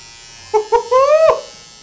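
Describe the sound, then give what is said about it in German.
A voice imitates an electric razor used to cut hair, making two short buzzes and then a longer, slightly rising buzz that cuts off abruptly, fairly loud. “Ich bin diese Woche auch auf die super Idee gekommen, mit einem Rasierer die Haare zu schneiden.”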